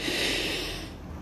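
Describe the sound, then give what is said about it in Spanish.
A single deep breath drawn in, fairly loud, a breathy rush lasting just over a second before easing off slightly, with no talking. “ubícate en el aquí, en el ahora, moviendo tus brazos, tu cuello, tu cabeza, levantando tus manos, estirándote y en el momento que consideres pertinente, toma una respiración”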